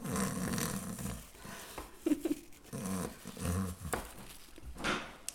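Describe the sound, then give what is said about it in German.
A voice imitates snoring, producing a run of rough, rattling, growl-like snores in an uneven rhythm over about five seconds, with no words spoken. “Kann schnarchend auch entspannt wirken?”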